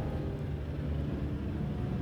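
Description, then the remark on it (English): A low, steady droning rumble of an airplane passing overhead, continuous and even throughout with a faint hum on top, and no one talking. “there's a plane overhead.”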